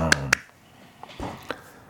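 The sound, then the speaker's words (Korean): Two quick, sharp hand claps ring out close together, followed by a few softer, scattered taps over a quiet background with faint traces of voice. “딱 드시면서 박수.”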